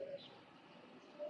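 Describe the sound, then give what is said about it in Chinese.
Dollarbirds and magpies squabbling in a fight over a nest, with about five magpies involved: two short, clear whistled bird notes, one at the start and one at the end, with a faint higher chirp between them over a quiet hiss. No one speaks. “详解的时候恰逢三宝鸟与喜鹊为争巢起冲突，于是现场直播了一场小规模的冲突”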